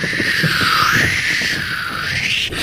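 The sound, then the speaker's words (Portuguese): Loud, steady wind gusts roar as a sound effect for a sudden fierce gale as the sun disappears and the sky closes over before a storm, with a howling whistle that slowly dips and rises in pitch over a dense rushing noise. “O sol foi embora, o céu fechou, uma ventania absurda começou”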